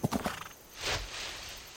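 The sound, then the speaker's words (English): A few quick hoof clops at the start, followed by a saddled horse's breathy whinny rising and trailing off as it is ridden; brief, with no voices. “She saddled up a horse and went for a ride to think about how to get an education for the kids in her community.”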